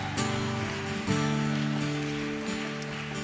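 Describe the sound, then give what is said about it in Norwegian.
An audience at a Sunday church meeting cheers and whoops loudly for Jesus, a dense wash of voices that surges twice near the start and stays steady, with sustained tones running underneath. “Skal vi ta oss og juble litt for Jesus?”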